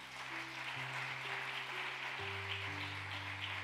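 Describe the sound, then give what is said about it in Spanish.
Steady, dense applause from a crowd, a continuous wash of clapping with sustained low organ-like tones holding and shifting underneath, no voices heard. “Dele un aplauso fuerte a papá.”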